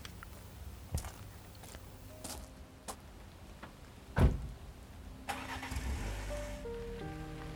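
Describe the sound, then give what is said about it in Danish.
A few sharp clunks and one heavy thud, then a car engine starts and revs up, its rising hum growing steadily as the car drives away from the driveway. No one speaks. “Motoren på bilen startede og kørte væk fra indkørslen af Perlesten.”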